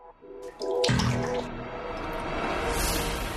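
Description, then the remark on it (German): A coin plops into very hot distilled water, followed at once by a loud, sustained bubbling and hissing as the water, made impure by the coin, churns and boils up violently. “Jetzt habe ich es also sehr, sehr heiß gemacht und kann dann künstlich eine Verunreinigung hinzufügen, indem ich eine Münze hier reinwerfe.”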